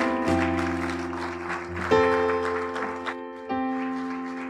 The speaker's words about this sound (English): Let's give God a round of applause. God bless you.